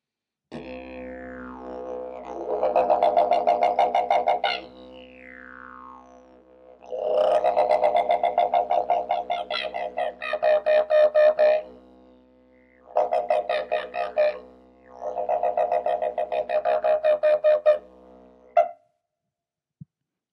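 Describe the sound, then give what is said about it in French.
A didgeridoo imitates the laughing call of the kookaburra, an Australian bird, a basic call of didgeridoo players: a steady low drone with four loud bursts of rapid, cackling pulses that rise and fall, separated by short quieter gaps. “Le kukabura est un oiseau en Australie, qu'on appelle aussi oiseau moqueur ou oiseau rieur.”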